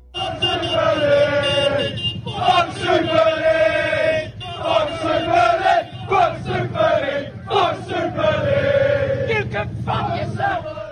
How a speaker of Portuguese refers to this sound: eu acho que o que melhor traduz o meu sentimento em relação à Superliga é esse áudio da torcida do Chelsea protestando contra o ingresso do clube na competição.